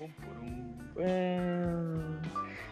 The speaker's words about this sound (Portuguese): Lá vem, lá vem, lá vem. da semana, roda a vinheta!